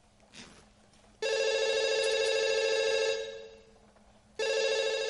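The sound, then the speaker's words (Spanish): A telephone rings in two loud, steady electronic bursts with a rich stack of harmonics, separated by a brief quiet pause; no one speaks. Walt and Jesse, wearing masks beside mixers, stop and look toward it, and Walt picks it up. “Miran hacia el teléfono.”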